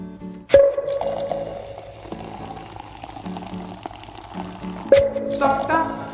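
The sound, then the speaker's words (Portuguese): Just-opened Antarctica lemonade soda is poured into a glass with a bubbly, fizzing trickle, set against a bright musical jingle, with two sharp clinks near the start and again toward the end. “depois sendo despejado no copo.”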